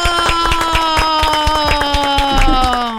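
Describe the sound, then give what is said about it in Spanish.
A small studio team claps steadily and quickly, the hand claps fairly loud, for a guest on the line, layered over a sustained harmonic tone like a held chord or feedback hum throughout. “Este es el aplauso sincero del equipo Después de la Tormenta para usted, señor.”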